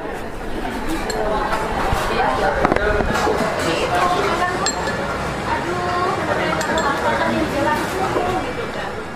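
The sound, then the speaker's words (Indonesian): In an open coffee shop filled with customers, a steady, overlapping murmur of many voices with frequent bright clinks of cutlery and dishes scattered throughout, plus an occasional sharper clatter, all at an even, busy level. “Suara denting perkakas makan dalam kedai kopi itu menandakan bahwa kedai tersebut sudah terisi pelanggan dan sedang buka.”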